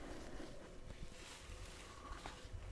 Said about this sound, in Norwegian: Knitringa du kanskje hører i bakgrunnen, kommer fra plastposen som opptaksutstyret mitt måtte pakkes inn i før jeg fikk komme inn.